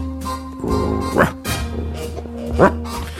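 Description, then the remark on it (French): A man imitates a dog barking for a song for a household product, letting out two sharp, rising woofs about a second and a half apart over a steady low hum, with no talking. “Ils m'ont fait aboyer dans la chanson.”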